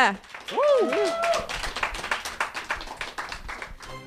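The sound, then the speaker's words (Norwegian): A crowd breaks into applause for the contest participants on the Radio Nova show Vitenselskapet, many hands clapping in a dense, steady patter that carries on throughout, with rising whoops and cheers near the start. “En uh, stor applaus til våre deltakere.”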